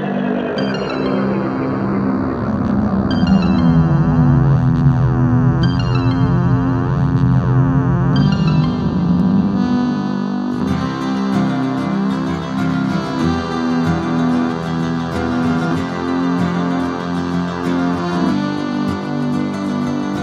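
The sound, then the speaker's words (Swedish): The end of an intro jingle: loud, dense instrumental music of distorted, effects-heavy synth tones with a swooping low line, playing continuously with a busy, layered texture up to its last note, with no voices. “Hörde du, det var sista tonen på vignetten.”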